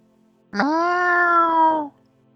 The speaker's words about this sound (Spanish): Un gato doméstico.